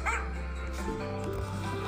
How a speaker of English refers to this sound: I don't have a dog, but this is the sound from the game, okay?